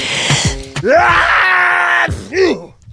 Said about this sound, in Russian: Ты сказал чихнуть, я чихнула.